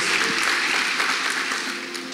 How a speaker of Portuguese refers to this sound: ¿Por que não le damos um aplauso ao Senhor por sua vida? Por que não vamos dar um aplauso ao Senhor pela sua vida?